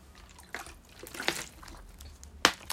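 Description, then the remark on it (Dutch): Quiet sips of water: a few short wet slurps and swallows spaced across a few seconds, with no talking. “En dus een slokje water.”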